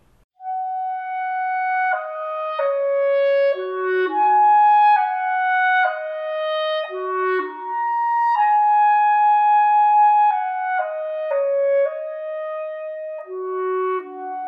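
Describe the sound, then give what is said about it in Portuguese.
A solo clarinet plays a flowing melody of held notes and stepwise runs, clear, with no voices or other instruments. “Sem mais demora, é hora de apresentar o clarinete.”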